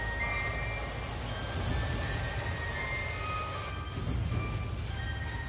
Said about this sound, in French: Il y a une petite musique de marchand de glace à côté d'un pont le long du canal.